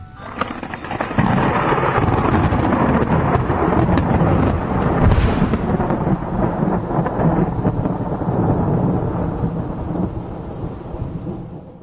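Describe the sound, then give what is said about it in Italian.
A loud thunderstorm rumbles in after a brief pause: deep, rolling thunder over a steady wash of heavy rain that continues without letup, with no voices. “Roy Sullivan stava guidando un camion durante un temporale.”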